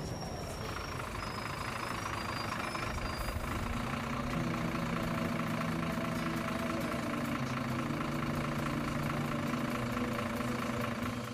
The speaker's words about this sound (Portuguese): Vocês vão até a rodoviária, né? O único ônibus que vai chegar esse horário, é, ele finalmente chega, as pessoas começam a descer.